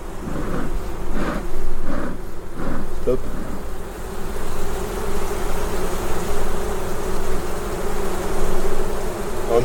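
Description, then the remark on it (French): A steady, droning buzz of many insects, like bees humming together, holding a continuous low hum throughout with a few soft pulsing swells early on. “T'entends le bombissement”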